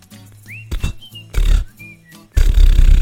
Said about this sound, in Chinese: 呃，谁放屁呀？啊，谁放屁呀？好臭啊！